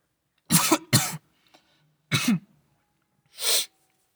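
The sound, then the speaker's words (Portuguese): A person coughs in a quick cluster of harsh bursts, two close together, then one more after a pause, followed by a short breathy huff. The coughs are loud, and nobody speaks. “Peraí que eu vou tossir.”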